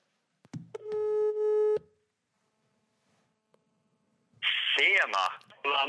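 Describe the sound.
A single steady telephone ringing tone sounds for about a second while a call is placed, followed by a pause of silence before a person's voice comes on the line.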